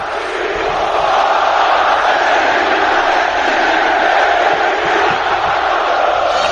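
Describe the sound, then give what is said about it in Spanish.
A packed football stadium crowd roars continuously as the teams walk out onto the pitch in a line with the referee and each team's captain, a dense, loud wall of voices and cheering that holds steady throughout with no pauses. “Cuando tú sales al campo, Burrul, con los capitanes de cada equipo a cada lado. Sale la fila, sale el árbitro.”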